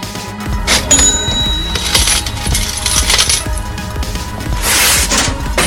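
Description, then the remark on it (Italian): Coins drop and clatter in a loud metallic cascade, a coin sound effect marking the start of another five-minute segment, with bright ringing clinks and repeated rattling impacts over several seconds, a final burst of jingling near the end; no one speaks. “Allora, eh, andiamo con l'altra monetina e gli altri 5 minuti”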